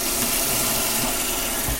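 water running

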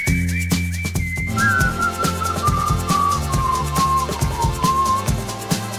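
whistled melody

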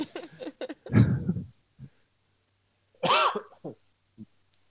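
coughing fit

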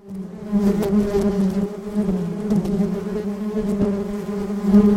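bee buzzing

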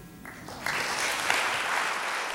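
applause

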